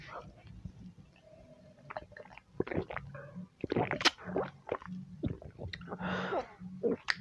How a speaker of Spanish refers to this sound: Ay, perdonen, es que está haciendo un poquito de frío y la garganta se, se seca. Permítanme eh, darle un trago a mi café.